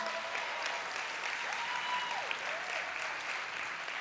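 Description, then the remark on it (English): A crowd of people claps steadily for several seconds for the ushers, a dense, even patter of applause with a few faint voices and whoops rising through it. “Can we give the ushers a round of applause?”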